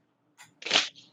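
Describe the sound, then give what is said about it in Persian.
A heavy metal martial-arts combat fan, used for display practice, snaps open: a short metallic click, then a loud bright swishing clack with a ringing high edge, followed by a fainter trailing rattle. No voices. “صدای خیلی جذابه در این صدای صدای خطرناک میده ولی خیلی قشنگه”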